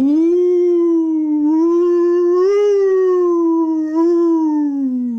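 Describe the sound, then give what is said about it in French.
A long, loud wolf howl used as a jingle rises and falls gently in pitch, holding steady for several seconds without a break. It sounds clear, with no talking or other sounds. “Donc, on va sortir les loups de leur tanière, parce que c'est le jingle, quoi.”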